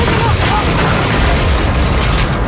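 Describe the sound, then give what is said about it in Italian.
A heavy crash as a heavy organ comes down on someone, knocking them to the ground, erupts into a loud, dense boom with rumbling low-end noise that holds steady for a couple of seconds. “il frizzone cade a terra sfondato dalla pesante organata”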